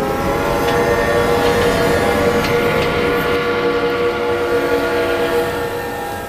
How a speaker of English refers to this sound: As soon as I say, you know, there's really something out there, we hear this deafening, this huge crashing sound, followed by a piercing whistle.